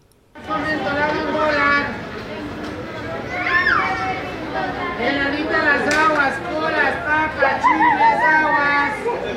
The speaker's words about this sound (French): Dans la rue également, nous pouvons entendre ces vendeurs ambulants.